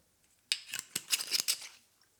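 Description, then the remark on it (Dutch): A small top-up of a drink is poured into an empty glass in a quick run of bright, splashy gurgles lasting about a second, irregular and fairly loud, with no one speaking. “Dus ik zal een laagje voor mezelf erbij schenken, want anders kan het natuurlijk niet, hè?”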